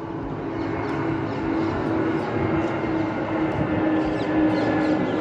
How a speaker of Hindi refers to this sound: हाँ ये हवाई जहाज़ की आवाज़ सुन रही हो ना